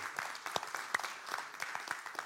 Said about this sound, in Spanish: yo le daría un aplauso a Cristo